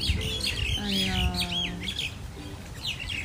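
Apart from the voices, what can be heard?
birds chirping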